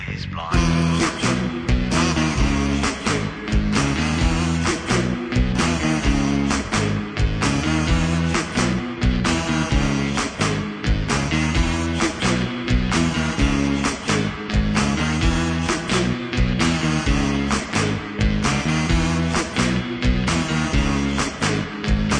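A song plays on the Cosmosis show on WRFN 107.1 Radio Free Nashville: loud and full-band, with a steady driving beat, thick bass and dense layered instruments filling the whole stretch without pause.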